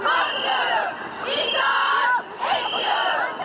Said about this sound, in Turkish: Kadınlar polis tarafından İstiklal Caddesi'ne çıkartılmayınca onlar da İstanbul turuna çıktılar. Önce Tophane'ye ardından Karaköy'e yürüdüler. Şimdi caddeyi trafiğe kapattılar. Haliç'e doğru ilerliyorlar. Cadde cadde sokak sokak haykırdı kadınlar.